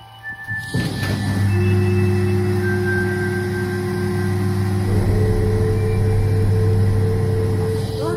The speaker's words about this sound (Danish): Det du hører her er lyden af en dansk astronom og hans treårige søn, der er i gang med at åbne en kuppel til et teleskop. Teleskopet står på en tør plet græs i Queensland i Australien